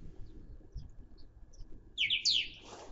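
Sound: birds singing outdoors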